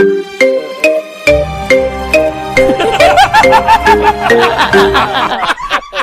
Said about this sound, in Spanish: Este es el Rington, él puede escuchar el Rington. Eh, eh, ponle, eh, mira, aquí está, te curo, este es Rington oficial, aquí va, va.